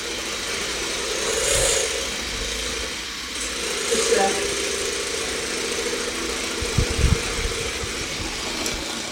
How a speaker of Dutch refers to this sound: Ja, ik ben hier lekker aan het kloppen, zoals je hoort. En eh, de eieren en de suiker die worden dus langzamerhand heel mooi eh, luchtig en eh, worden van geel een beetje bleker. En oeps, er gaat bijna de thermometer door mijn klopper heen.